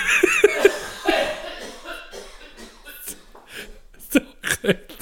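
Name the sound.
coughing fit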